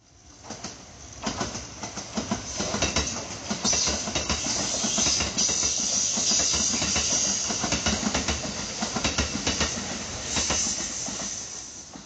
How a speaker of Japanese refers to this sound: 続いて近鉄特急伊勢志摩方面の音